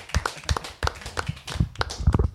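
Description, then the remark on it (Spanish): Hands clapping in a quick, slightly uneven run of sharp claps for two competitors after a competition, several people or one person applauding for a couple of seconds with no talking over it. “Les aplaudo a los dos.”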